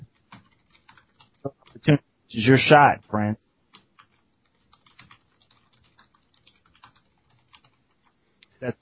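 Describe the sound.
Quiet, irregular computer keyboard clicks tap away throughout, briefly interrupted by a short burst of speech from a person near the middle.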